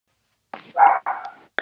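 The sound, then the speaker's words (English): Three or four short, harsh bark-like yelps come close together, loud, with no talking around them. “Did that dog sit on your phone or something?”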